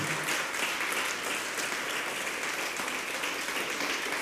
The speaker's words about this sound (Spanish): Así es que yo quiero, si le va a dar fuerte el aplauso, déselo a él.